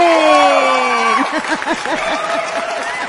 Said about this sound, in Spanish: aplausos, aplausos, gracias.